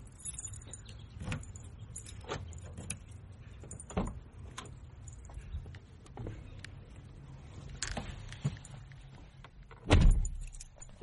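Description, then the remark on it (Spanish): Keys jingle and clatter in short bursts, followed by the muffled thud of a rented car's door closing, with rustling movement as someone settles into the seat before driving to Sokolka, Poland. No one speaks. “Ya dentro del coche pongo rumbo a Sokolka.”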